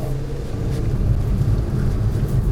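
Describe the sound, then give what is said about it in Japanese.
Steady low rumble of a car cabin on the move, a constant droning engine and road noise filling the space with no voices, holding an even, moderate level throughout. “運転中のお話ですんでごめんなさいね運転の方にどうしても、ね、集中せざるを得ない時がありますから、ねね、事故に遭っちゃ、ね、たまんないですからねしっかり運転しながらの収録となっておりますよ。”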